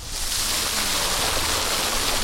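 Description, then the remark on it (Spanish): A steady stream of water pours and splashes from a water spout into a garden pool with carp, beside the Grutesco gallery, a continuous rushing wash with no pauses and no voices. “y fue en los 90 cuando se reabrió la galería de Crutesco y también este caño de agua.”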